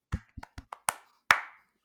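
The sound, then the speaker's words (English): A few sharp hand claps, about six in an uneven rhythm, given as a round of applause for a team, with the final clap the loudest and ringing out briefly. No one speaks. “So, um, round of applause to the guys.”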